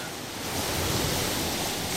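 Wind-driven waves wash steadily onto the coast of the small island of Lempholm, a broad continuous roar of surf with a gusty wind rushing over it, swelling slightly midway and staying loud throughout with no voices.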